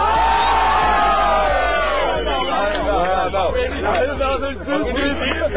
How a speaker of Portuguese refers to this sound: Terminado o tempo do ataque e resposta, quem decide o vencedor é o público, que faz barulho para quem eles acham que foi melhor.